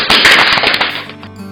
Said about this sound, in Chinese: 掌声鼓励。